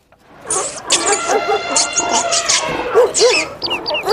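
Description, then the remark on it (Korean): A loud, busy jumble of animal cries from an elephant, a dog, a tiger and a lion, with barks, squeals and bird-like calls overlapping in quick succession, dense for a few seconds. “동물들 환호 소리 한 번 더요.”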